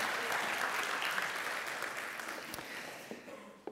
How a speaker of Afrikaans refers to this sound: So ek wil net vir julle twee namens die gemeente sê, Baie dankie. Geef hulle lekker aan 'n klap toe. Dankie julle.